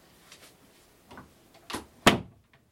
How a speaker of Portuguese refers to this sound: Fechando a porta aqui.